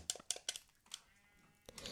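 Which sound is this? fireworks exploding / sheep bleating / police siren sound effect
sheep bleating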